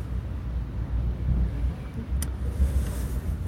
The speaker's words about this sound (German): Ja, der Verkehr.